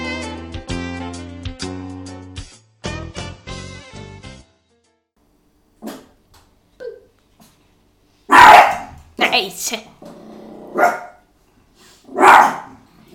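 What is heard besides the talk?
dogs barking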